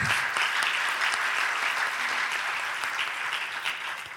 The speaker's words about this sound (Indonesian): Berikan tepuk tangan tuh bagi Tuhan kita Yesus.